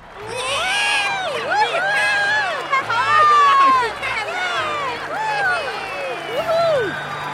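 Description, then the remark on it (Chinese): An excited crowd at an archery contest, waiting for the queen's archers, murmurs and chatters, many overlapping voices rising and falling in pitch, with occasional louder exclamations, holding a steady, fairly loud level throughout. “群众的兴致又被引燃了，大家都好奇等待着皇后找来的射箭好手。”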